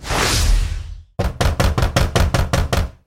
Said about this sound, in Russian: Примерно в 4 утра меня разбудил стук в дверь нашего цеха. Кого черт несет?